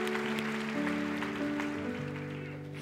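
A crowd applauds steadily for a few seconds, a dense patter of many hands clapping for a musician who has been playing for them, with sustained music notes playing underneath.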